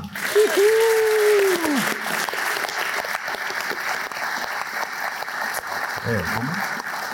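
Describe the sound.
Steady, dense audience applause fills the whole stretch at an even level, with a brief whooping cheer rising over it near the start and a short voice breaking through near the end, welcoming a show guest who is a former police surveillance officer.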